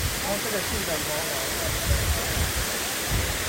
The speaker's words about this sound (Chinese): 漂亮啊。哇，那顶是很澎湃的样子，好美。那边也有一些小的。嗯，很棒啊，很棒啊。第二层瀑布哎，哦，我们没有办法去第三层，对不对？第二层。